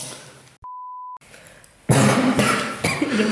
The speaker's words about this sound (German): Ich muss husten. Ja, kannst du machen. Sehr gesunder Husten. Sehr gesund.